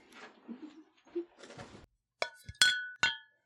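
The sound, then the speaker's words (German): Small glass cola bottles, brought along as drinks for Cuba Libre, knock together in a few bright, ringing clinks, each with a sharp attack and a short shimmering tail, after a stretch of soft rustling and handling noise. “Ich habe auch extra hier Cola-Fläschchen”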